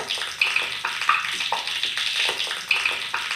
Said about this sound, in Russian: Все, это луп тающего льда. Огонь. Прикольно.